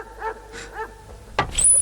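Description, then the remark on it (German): A dog whimpers in a few short, high whining bursts, then lets out one sharp bark, followed by a faint high squeak. No one speaks. “Na, ich geh mal zurück, sonst kommt dieser Hund noch rein”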